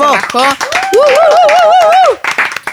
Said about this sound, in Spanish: entonces les agradecemos a ocho libros. un aplauso para ocho libros